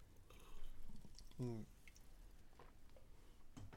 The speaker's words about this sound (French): Une bonne gorgée, ça.